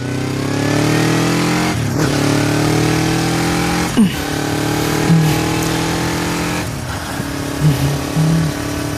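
motorcycle engine accelerating

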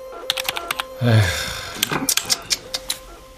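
keyboard typing

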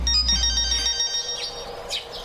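phone ringing

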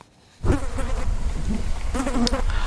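fly buzzing

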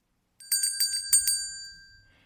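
ding-dong-dang correct answer chime

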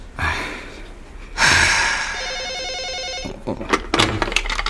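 telephone ringing

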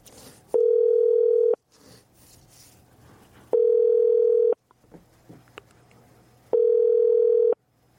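telephone ringback tone

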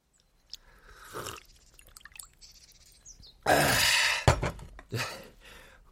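chewing food

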